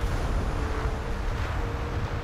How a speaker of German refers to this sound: Hinter den Steinen, sicher von Menschen gemacht, die ungeordnet aus der lockeren braunen Erde stachen, waren natürliche Felsen, gegen die die Brandung hörbar, aber im Sturm untergehend schlug.